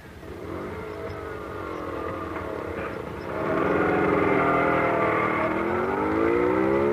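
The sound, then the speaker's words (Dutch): A small scooter engine idles with a buzzing drone, then revs up louder midway, its pitch rising and sweeping as the throttle opens. No voices. “Hij gaat naar die scooter.”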